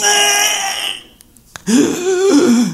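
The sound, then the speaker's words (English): A voice imitates a crying baby boy losing his air: a strained, wavering wail that trails off into a breathless silence, then a sharp catch before another raspy, gasping wail starts up loud. “And he hits that penultimate baby cry where they completely lose air and he's like,”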